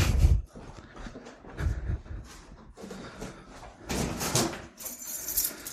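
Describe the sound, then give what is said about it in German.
Many doors being opened and closed one after another on the way down to a cellar from a ground-floor flat, with a series of thuds, latch clicks and rattles, spaced a second or two apart. “Es sind nur viele Türen.”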